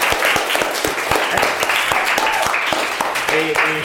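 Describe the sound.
A crowd applauds with dense, rapid clapping that stays steady and loud throughout, with a few voices calling out over it.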